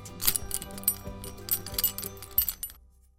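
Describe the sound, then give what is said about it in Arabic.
A bunch of house keys, handed over to the neighbor who bought the house, jingles and clinks in several quick metallic shakes, bright and irregular, for about two and a half seconds before falling silent. No one speaks. “تسلم جحا الثمن المتفق عليه وسلم جاره مفاتيح البيت”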